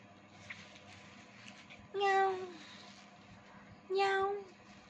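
A kitten meows twice, two short, high-pitched mews about two seconds apart, clear over a faint, steady background hum.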